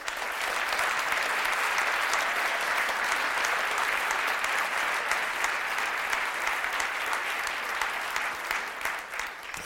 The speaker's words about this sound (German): Wir sind hier im Arabella Sheraton Hotel in München. 400 börsenbegeisterte Privatanleger haben den Weg zu uns gefunden und ich freue mich sehr, dass ihr da seid. Herzlich willkommen. Applaus